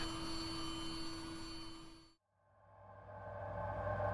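A steady mechanical hum of a space station's fans and pumps running at steady state, whining and whooshing with constant tones like a cross between a vacuum cleaner and a microwave, briefly cutting out midway before a similar drone fades back up, with no voices.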